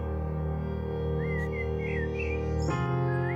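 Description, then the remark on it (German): A few short, thin bird chirps of spring song flutter in and out over a steady, loud droning background, sounding faint, with no voices present. “Die Vögel zeigten kein Erbarmen, zwitscherten fröhlich ihre Frühlingslieder”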